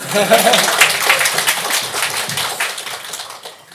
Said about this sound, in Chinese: 请鼓掌。